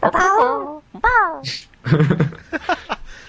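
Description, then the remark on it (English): A voice mimics a dog's howl with two drawn-out, wavering wails, loud, followed by a brief burst of quick talking and chatter. “some some doggy sound.”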